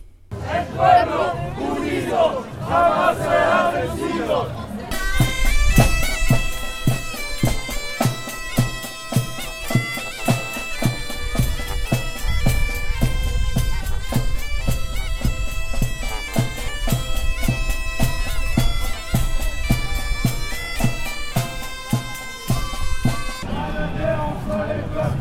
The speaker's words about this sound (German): Abgesehen von der Verkehrspolizei lief kein einziger Uniformierter um die Demonstration herum. Zehn Polizeiwannen folgten hinter der Demonstration. Stark zusammengefasst klang das Vorbeigehen der Demonstration so.